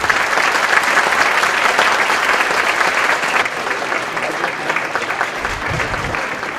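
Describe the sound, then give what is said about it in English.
Sustained audience applause for five science presenters, a dense crackle of many hands clapping at a steady loud level throughout, easing slightly toward the end with no talking over it. “How about a round of applause for all of our five science presenters?”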